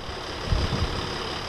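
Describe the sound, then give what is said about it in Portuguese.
A coach bus engine runs with a steady low rumble over constant background hiss, swelling briefly in the middle of the short stretch, as the bus leaves the Serpa Town Council workshops yard at 9:20 at night, bound for Paris. No one speaks. “A caminhoneta do canto sai do Parque das Oficinas da Câmara de Serpa.”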